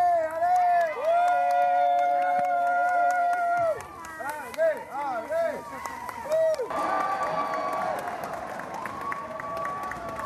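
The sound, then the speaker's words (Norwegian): Roadside spectators at the Midnight Sun Marathon cheer loudly and continuously as runners head toward the finish, with long sustained shouts and rising, falling yells over a wash of clapping. Midway the calls turn choppier, then a broader burst of applause and cheering swells. “det flotte publikummet som Heia hun og alle de andre løperne frem mot målet.”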